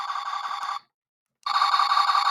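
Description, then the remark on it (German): A toy's laser targeting sound effect: two bursts of a bright, buzzy electronic warble separated by a short silence, fairly loud, with no voices. “Das, das Anvisiergeräusch, ja, ja.”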